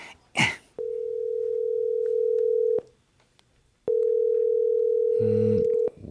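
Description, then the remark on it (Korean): A steady, mid-pitched ringback tone on an outgoing phone call sounds in two long bursts of about two seconds each, separated by a pause, with a faint click before the first burst. The call goes unanswered. “유정이한테 전화해야지.”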